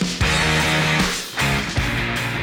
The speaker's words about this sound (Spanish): A mí me gusta mucho el intro de una serie que ya había mencionado en este podcast, Love. No hay una rol en específico, pero suena así.